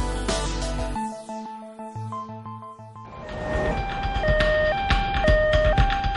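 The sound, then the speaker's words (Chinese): An ambulance siren wails in a steady two-tone high-low pattern as the ambulance speeds in, carrying a patient to a hospital emergency room. The pitch switches about once a second over a rumbling, noisy background. It follows a few seconds of sustained musical tones. “救护车疾驰而来，一位昏迷的女子被抬进了抢救室。”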